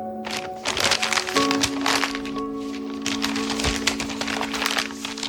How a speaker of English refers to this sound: I'm making a paper airplane.